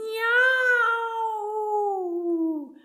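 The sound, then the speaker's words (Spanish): A person loudly imitates a big cat's meow, louder than a fire siren, one long drawn-out wail that rises slightly and then slowly slides downward, sustained for nearly three seconds. “Tampoco les gustaba tener que oír un”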